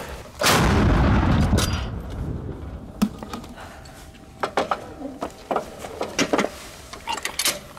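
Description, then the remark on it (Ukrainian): A single powerful artillery gun shot booms, its deep rumble rolling away over a couple of seconds, followed by scattered sharp metallic clicks and clanks as a gun crew works the gun. “Постріл. Важко на гарматі працювати.”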